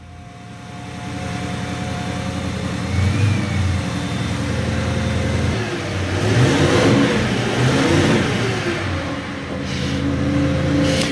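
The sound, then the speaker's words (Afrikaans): A 2017 Bentley Continental GT engine revs and accelerates, its smooth, fairly soft rumble rising and falling in pitch over several surges, with no voices. “Hierdie klanke wat ons nou gehoor het is die van 'n Bentley, is 'n baie sagter geluid wat 'n mens hoor.”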